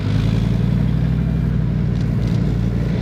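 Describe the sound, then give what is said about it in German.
Three Leopard 1 battle tanks advancing together, their engines a loud, steady low rumble with a droning hum that holds throughout. No one speaks. “Nun rücken drei davon gemeinsam vor.”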